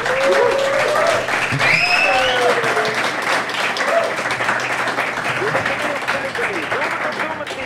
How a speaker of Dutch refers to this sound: Een daverend applaus voor de Jogclub live!